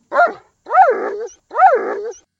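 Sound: dog barking and growling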